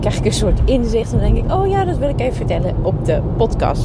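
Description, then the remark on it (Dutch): A man talks continuously over a steady, low rumbling hum of road noise inside a moving car, recorded on a clip-on microphone, the engine and tire drone holding even beneath his voice throughout. “Dus je hoort waarschijnlijk wel wat geruis op de achtergrond.”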